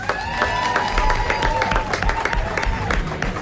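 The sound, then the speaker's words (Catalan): A crowd applauds steadily with dense, continuous clapping, joined by a few scattered cheers and whistle-like tones, holding a fairly even loudness throughout. The applause greets the Happy Day contest winners on stage at a Catalunya Ràdio event, before a musical performance. “Un aplaudiment, Bravo. sisplau.”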